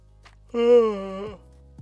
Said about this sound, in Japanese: あくびをしている。